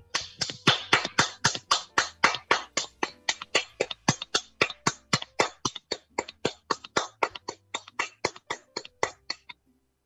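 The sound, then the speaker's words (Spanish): Steady hand clapping as applause after a poetry recitation, about four sharp claps per second in an even rhythm, fairly loud, continuing for nearly ten seconds before stopping. No one speaks. “¡Aplausos, por favor!”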